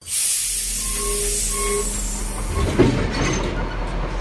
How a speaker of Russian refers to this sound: Состав качнуло. Лязгнули оковами вагоны и поезд, ухнув от натуги, медленно-медленно пополз.